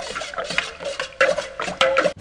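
A spoon stirs a potion containing horned slugs and porcupine quills in a cauldron, scraping and clinking against the sides in about five steady, rhythmic clockwise strokes, moderately loud with no voices.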